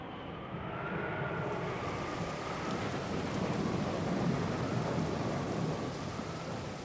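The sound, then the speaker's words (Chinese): A thunderstorm with heavy rain: a dense, steady roar of downpour spread across the whole clip, with low rumbling thunder rolling underneath and swelling slightly midway. No voices. “下午的时候，天气突然变了，一眨眼的功夫，暴风雨骤起。”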